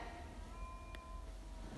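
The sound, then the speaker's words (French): A single drawn-out cat meow at a window, faint, rising thinly over a steady low background hum with a brief soft click partway through. “non, on n'ouvre pas la fenêtre au chat, il fait trop de bruit.”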